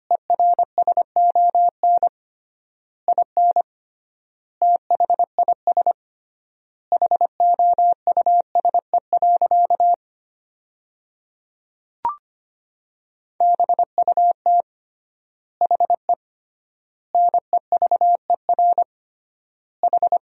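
Morse code at about 25 words per minute, sending practice sentences built from the 400 most common words with three-times word spacing: a single steady beep tone keyed in quick dots and dashes, grouped into words separated by long pauses, with one brief click midway and no voices.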